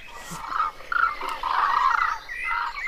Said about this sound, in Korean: 이것도 이 새소리 그때 그 해인사에 해인사에서 나오던 BGM 아니에요?